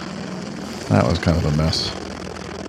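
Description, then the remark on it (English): A steady, droning roar of Osprey tiltrotor aircraft engines and rotors runs throughout, with a person briefly talking over it partway through. “Okay, come on, Osprey.”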